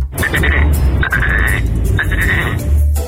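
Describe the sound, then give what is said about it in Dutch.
A person imitates a frog with three raspy, warbling croaks in a row, each about half a second long, loud over a low background rumble. “Kikker. Kan niet goed gaan volgens mij.”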